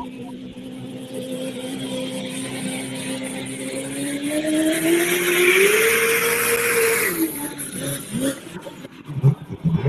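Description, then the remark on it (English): A loud GM engine on the Evil Diesel drones and then revs higher with a rising roar and a whine as the RPM and boost are brought up and the clutch let out, holding at full power before dropping off, with a brief voice near the end. “Bring up that RPM, Bring up the boost, watching the oil pressure. Good to let that clutch out, let this GM roar.”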